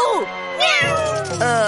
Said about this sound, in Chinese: 呃，这真是我听过最凶、最大声的喵了。